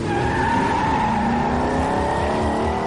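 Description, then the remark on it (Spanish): A car driven by Walt accelerates hard away from Hank's house at full speed, its engine roaring loudly and continuously with a high squealing whine from the tires layered on top; no voices. “Walt lo ve, acelera y se aleja de casa de Hank a toda velocidad.”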